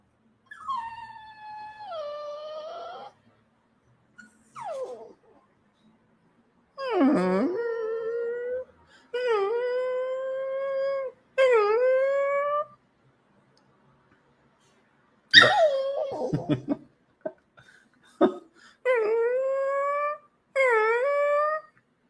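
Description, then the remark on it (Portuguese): A small dog, held by a person to keep it from biting, whimpers and cries in a series of drawn-out, high, wavering whines, about eight of them with short pauses between, some rising into yelps. “Que choro bonitinho, esse que eu não tô apertando, só tô segurando você pra não me morder.”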